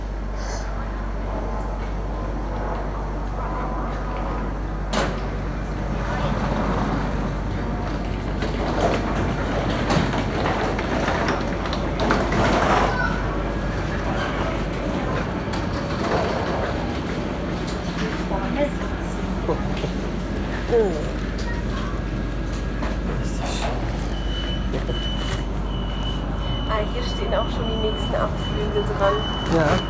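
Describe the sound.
A steady low rumble of an automated train rolling very slowly and braking to stop precisely at the station's door openings, with mechanical whirring and clunks, and a thin high tone near the end. Muffled voices are faintly audible.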